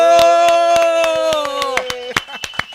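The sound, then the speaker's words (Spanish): Steady, rhythmic farewell clapping, about five claps a second, while a voice holds a long, loud drawn-out cheer over the first part before fading. “No, pero quiero que despidamos con un fuerte aplauso también a mi hermano”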